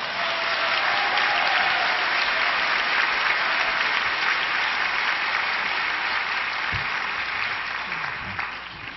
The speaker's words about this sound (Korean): 한번 우리 목사님을 환영하는 박수를 한번.